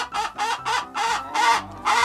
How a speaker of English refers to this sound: I want you to picture two neighboring farms that both raise chickens. And let's just say that one particularly cantankerous chicken starts squawking.